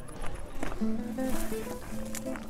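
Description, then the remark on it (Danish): Footsteps crunch steadily over fine pea gravel on an open outdoor square while a low, indistinct murmur of a gathered crowd hums in the background, with no clear words standing out. “Mumlen og lyden af perlegrus.”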